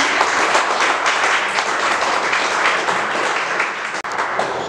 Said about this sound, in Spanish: Amén. Amén. Gloria a Dios. Un aplauso Señor.